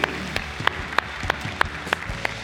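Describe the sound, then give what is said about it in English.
An audience at a church service applauds steadily, a dense wash of clapping hands with sharp, evenly spaced claps standing out in a quick rhythm. It stays loud throughout, with no talking. “One more time, guys. Give it up. Come on, nice and loud.”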